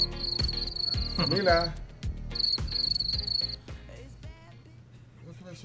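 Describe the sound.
Crickets chirp in steady, high pulsing bursts, the classic awkward-silence effect, playing over a backing beat while a voice briefly speaks.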